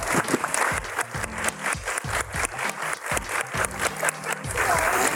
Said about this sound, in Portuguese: Gente, quero pedir palmas para Simone e para a equipe dela, por favor.